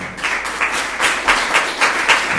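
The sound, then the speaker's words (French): Steady audience applause for two presenters, a dense patter of many hands clapping at moderate loudness with no voices over it. “Euh, je propose déjà de les applaudir”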